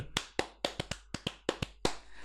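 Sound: hands clapping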